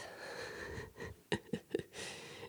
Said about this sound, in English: I want to see if you can hear the dog snoring.